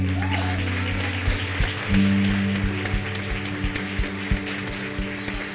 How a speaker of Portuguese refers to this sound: Você pode aplaudir o Senhor aí?